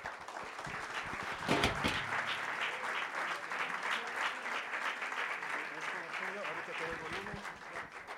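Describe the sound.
A church audience breaks into steady, sustained applause, dense overlapping clapping that stays fairly even in loudness for several seconds to welcome a preacher.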